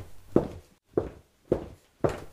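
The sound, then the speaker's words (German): Four footsteps land at a steady walking pace, each a soft, dull thud with a short scuff, moderately loud, with no voices: a boy walking with his father to the car. “Danach läuft er mit Papa bis zum Auto.”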